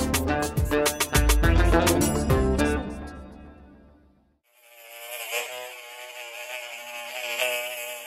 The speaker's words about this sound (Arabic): الدرون تعني صوت الطنين فبحكي لك يعني هو هي اسمها الاصح unmanned aerial system نظام جوي بدون طيار ولكن آه، اللقب العام اللي طلع عليها او الاسم اللي اطلق عليها درون نسبه الى صوتها